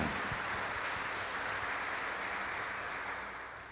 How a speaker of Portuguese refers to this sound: Vamos saudar Nossa Senhora e a todos que rezam conosco com uma grande salva de palmas nossa união fraterna no amor, na fé e na devoção.